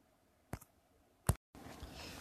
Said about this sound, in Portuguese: Caramba, ainda tô fazendo barulho nessa cadeira, ô desgraça.